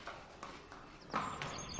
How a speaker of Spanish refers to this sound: Un hombre lleva de las riendas a un caballo por el patio de la casa.